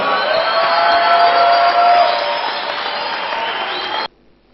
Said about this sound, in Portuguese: Stand to your feet, everybody. Fiquemos de pé todos. Give the Lord a shout and a clap offering. Dá um grito e uma salva de palmas para o Senhor.